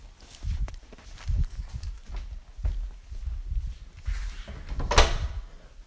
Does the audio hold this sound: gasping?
no